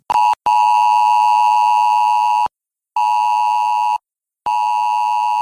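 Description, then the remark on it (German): A loud, harsh mobile phone emergency alert tone, sent at 11 a.m. in a test of warning systems by federal, state and local authorities, blares in repeated long bursts separated by brief silences, a piercing steady electronic pitch with strong overtones and no voices. “Dieses Geräusch sollte Ihr Handy heute um 11 Uhr machen, denn Bund, Länder und Kommunen testen dann ihre Warnsysteme.”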